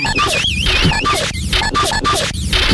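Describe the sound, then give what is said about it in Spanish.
A loud, chaotic tin can ('la lata') sound effect played on the Luis Network internet radio show: clattering, scraping metallic noise mixed with warbling tones, continuous and busy for a few seconds with no talking. “Tengo el sonido de la lata.”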